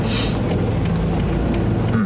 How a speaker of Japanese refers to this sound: 今ね雨が降ってますね、えー、子供を保育園に送っていった帰りの車でちょっと寄り道をしながら収録のために寄り道をしながら、えー、撮ってますけど